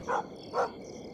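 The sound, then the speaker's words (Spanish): Two short, muffled barks from a dog outside a caravan, about half a second apart, fairly quiet over a faint background hum, with no one talking. “Aunado a ello, los perros de mis amigos ladraban sin cesar afuera de la caravana.”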